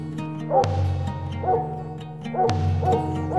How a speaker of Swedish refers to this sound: När jag nu bort mot regnbågen går hör jag tydligt och klart var ståndskallet står.